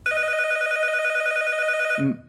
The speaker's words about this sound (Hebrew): תוך כדי שהכנתי חביתה, שמעתי את הטלפון מצלצל.